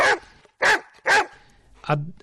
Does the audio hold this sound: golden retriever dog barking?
yes